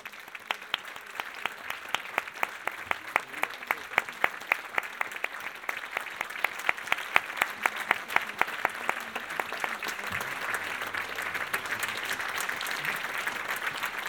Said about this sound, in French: Je vous invite donc à applaudir ….